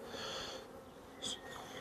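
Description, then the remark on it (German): Honeybees buzz softly around an open hive worked without smoke, relatively few bees flying up while most stay seated, a steady low hum with one bee droning briefly closer midway through. No voices are heard. “relativ wenig Bienen aufgeflogen. Eigentlich alle sitzen geblieben, die allermeisten.”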